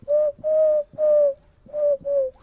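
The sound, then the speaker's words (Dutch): A wood pigeon cooing: five hollow, low-pitched notes in a steady rhythm, the middle ones longer, with a short pause before the last two. No one speaks. “Dus dit was houtduik.”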